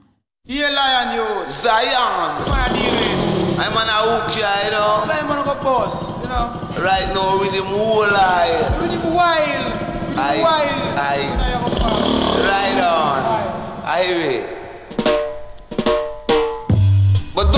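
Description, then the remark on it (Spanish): A Honda motorcycle engine revs loudly in a recording studio for a reggae song, its pitch climbing and falling in repeated surges, mixed with a voice and music throughout before breaking into short bursts at the end. “… metió una motocicleta Honda en el estudio para reproducir el sonido de su motor”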